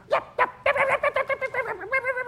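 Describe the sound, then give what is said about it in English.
A voice imitates a dog barking: two sharp separate barks followed by a quick, rhythmic string of yapping barks ending in a drawn-out, wavering yelp. “So, uh, and so I knocked on the door, and all of a sudden I heard.”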